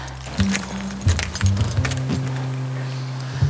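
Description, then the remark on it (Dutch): Keys jangle and click as a lock is worked and the door of a green container (Planet B, on the Zijspark) at the top of a stairway is opened, with short metallic clinks and thuds over a low steady hum, no one speaking. “dan ga ik even de deur voor jullie openen.”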